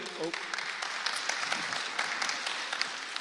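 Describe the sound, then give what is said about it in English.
A steady burst of applause from a crowd for presenters going back to their seats after sharing facts about Poland, dense clapping filling the whole few seconds at an even, moderately loud level, with a faint voice briefly audible underneath. “So give them a round of applause as they go back to their seats.”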